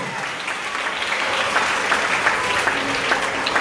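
Steady audience applause, a dense wash of many hands clapping at a fairly constant loud level throughout, with no voices standing out.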